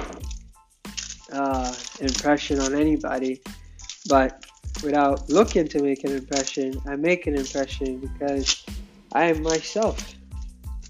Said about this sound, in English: am cutting onions, in case you wonder what that sound is.